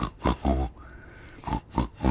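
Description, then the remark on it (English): A person imitates snoring as a joking greeting, with loud, raspy snorting bursts: three in quick succession, a brief quiet pause, then three more. “So then it would be, You're gonna hear me snore. And then instead of the uh uh ohs, you go.”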